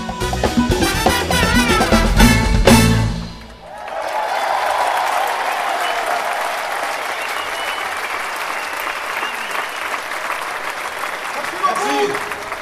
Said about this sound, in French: Ce 2 juillet 2021, les hurrahs furent nourris et mérités.